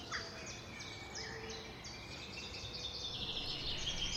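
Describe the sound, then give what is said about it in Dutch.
A dawn chorus of several birds whistling and chirping in the still-bare branches of trees at an estate in the village of Cornium, just above Leeuwarden in Friesland, early in the morning, their high, repeated phrases overlapping steadily over a soft outdoor hush, with no one speaking. “De vogels vullen met hun gefluit de nog kale takken van de bomen.”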